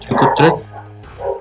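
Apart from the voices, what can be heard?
dog barking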